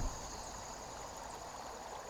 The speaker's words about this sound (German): Das Rauschen des kleinen Baches, der sich nicht unweit von dir durch den Wald schlängelt.